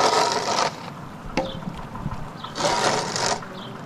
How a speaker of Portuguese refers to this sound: está a limpar a neve.